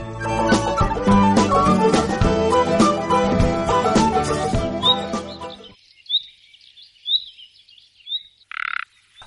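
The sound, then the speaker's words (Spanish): A male common nightingale sings in short, varied phrases of clear whistles, rapid chirps and a brief buzzy trill, following a dense stretch of loud, rhythmic croaking that stops abruptly. “Que es el canto de un macho de ruiseñor común.”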